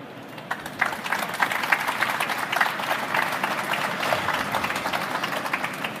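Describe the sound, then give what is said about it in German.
Sustained audience applause for three presenters after their talk, a dense wash of many hands clapping at steady volume for several seconds, without voices on top. “Ja, den Applaus äh, haben Sie sicherlich verdient, die drei Kollegen, das mal live zu zeigen oder mal in Umsetzung zu zeigen.”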